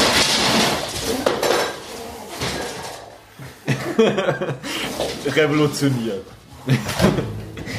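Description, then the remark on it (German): A clatter of dishes and small objects, including a small glass, knocked about by house cats tussling with each other, with scuffling bursts, while people laugh and talk over the commotion. “ja, das, was ihr gerade gehört habt, waren meine lieblichen Katzen, die sich ein bisschen gegenseitig gestreichelt haben.”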